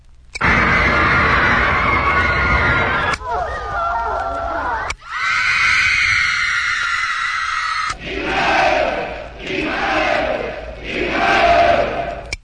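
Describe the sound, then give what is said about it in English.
A loud recorded crowd shouting and roaring in several abrupt sections, played from a record on a push-button machine meant to replace a teenage audience in an auditorium; the din shifts in tone between segments and ends in rhythmic surging waves of yelling. “Whoops, wrong crowd.”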